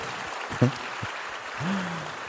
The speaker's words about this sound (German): Ein Applaus. Sehr weit vorne.